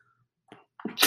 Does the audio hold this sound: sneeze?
yes